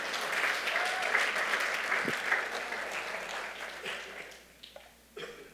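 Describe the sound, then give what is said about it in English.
An audience claps their hands in dense, sustained applause, gradually thinning out toward the end with a few scattered claps. “Can anybody give a hand clap to that today?”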